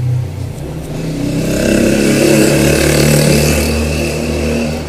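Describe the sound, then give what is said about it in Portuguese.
A motorcycle engine drones, its pitch rising and swelling to a peak midway before easing off slightly, a steady mechanical roar with no voices. “e passa a moto.”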